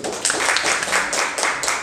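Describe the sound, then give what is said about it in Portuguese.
A crowd at a prayer service breaks into steady applause, a dense wash of many hands clapping at once, fairly loud, holding at an even level throughout without any voices on top. “Vamos aplaudir, Senhor.”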